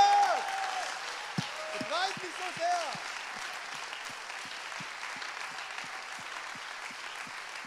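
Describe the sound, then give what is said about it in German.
An audience applauds and cheers to Jesus, with dense steady clapping throughout and a few rising whoops and shouts early on before the clapping settles into a continuous roar. “Diesem Jesus, kommt, dem jubeln wir mal zu.”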